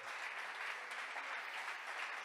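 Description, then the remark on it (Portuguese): An audience claps together in praise of the Lord during a sermon, a steady, dense wash of applause that holds at an even level throughout, with no voices standing out above it. “Pode aplaudir o Senhor.”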